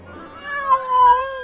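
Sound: cat meowing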